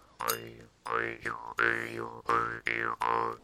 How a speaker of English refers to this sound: Well, maybe I can oblige with that. I at least have a, a, a juice harp here, so.